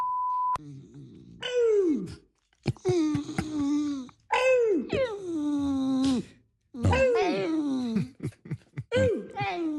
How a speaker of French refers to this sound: Non, mais c'est vraiment le chien. C'est … qui s'amuse Non, non, c'est son chien et on entend un peu … qui, qui discute avec son chien.